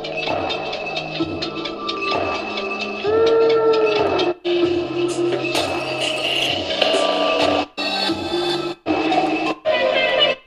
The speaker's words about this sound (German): ein kleines, schauriges Stück, ein kleines Klangteppich. Das ist ja ein Knaller. Das ist ja ein Knaller. Hört ihr das raus? Ich mache hier nichts am iPhone, das mache ich mit dem Gerät.